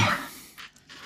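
A single sneeze bursts out sharply at the start, then fades into a couple of softer, airy breaths or sniffs. No one speaks.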